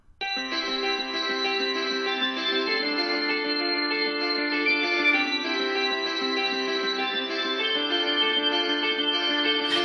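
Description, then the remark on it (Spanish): A recorded pop song plays at a steady, full volume, with layered sustained synth chords and effect-heavy, echoing textures. Nobody talks over it. “tiene un hit que me ha vuelto loco y que me lo pongo todas las noches antes de dormir porque ahora me pongo canciones para dormirme,”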